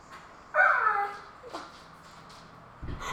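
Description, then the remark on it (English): A dog lets out a single high, drawn-out whine lasting under a second, clear, followed by faint shuffling and a brief voice at the very end. “He's a very handsome dog.”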